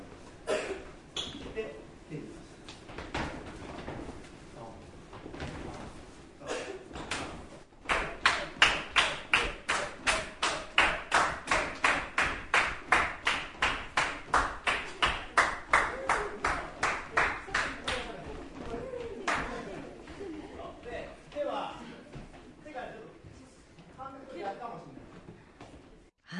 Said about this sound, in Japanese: はい今聞いていただいているのは3月11日に開催されたダンスで日本を元気に夢の課外授業スペシャルイン仙台でのレッスンの模様なんですが、はい、えー、場所は仙台にあります EXPG 仙台校、うん下は小学生から上は高校生約30人ぐらいですかね幅広かったですね、ねうん、参加してくれました、えー、今声が聞こえてたのはおそらくケンチさんの声ですね。